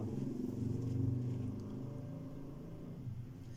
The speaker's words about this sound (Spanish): está pasando una moto.